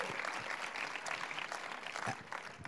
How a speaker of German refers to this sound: Auch ihm dürft ihr gerne nochmal einen Applaus geben.